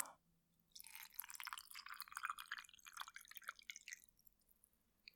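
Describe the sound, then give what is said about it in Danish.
Tea poured into a cup: a steady, splashing trickle starting after a brief pause and running about three seconds before tapering off, fairly quiet, with no talking. “Ja, så har jeg lige øh, noget te med her.”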